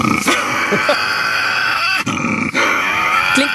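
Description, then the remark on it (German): A Tasmanian devil growls and screeches continuously, harsh raspy snarls with a couple of brief breaks, loud and unbroken throughout. “Es ist der tasmanische Teufel.”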